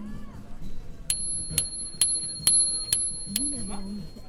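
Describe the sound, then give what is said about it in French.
A small bicycle bell, used to give a warning, dings six times in quick, even succession, each bright metallic ring lingering briefly, while voices murmur softly in the background. “Et euh, la sonnette, elle sert à quoi Il y en a une petite pour avertir.”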